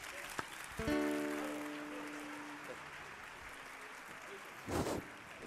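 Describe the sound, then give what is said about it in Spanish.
Steady audience applause for the show 'O nacemento dos PTV' fills the whole clip as a dense, even wash of clapping, with a held musical chord sounding early on and a brief louder surge near the end. “Fortes aplausos.”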